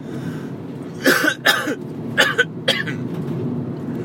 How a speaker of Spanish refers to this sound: Ay, estas toses